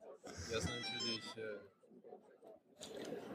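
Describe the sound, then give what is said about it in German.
A smartphone rings with a bright, tonal ringtone melody that plays for about a second and a half, with someone talking over it, then a pause before voices and noise return. “Jetzt klingt mein Smartphone”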